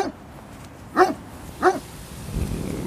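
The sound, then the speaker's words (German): A dog gives two short, sharp barks about half a second apart, clear, over a quiet background with no one talking. “Ich spreche jetzt mal mit dem Hund. Mal sehen, was er zu sagen hat.”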